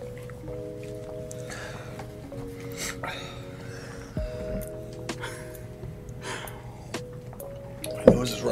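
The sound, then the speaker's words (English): Heavy, labored breathing after eating something spicy, a series of loud huffing exhales and gasps repeating every second or so, with a steady tonal hum in the background. “I'm just focusing on my breathing right now.”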